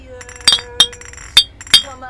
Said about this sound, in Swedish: I absoluta nästan slutscenen när han sitter i bilen och han stoppar några jävla glasflaskor på fingrarna som han håller på liksom och så här.